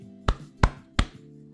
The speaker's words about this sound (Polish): Ponieważ poczułem się przywołany do porządku, i wreszcie doceniony, a także zmotywowany, postanowiłem uderzyć się trzykrotnie w pierś.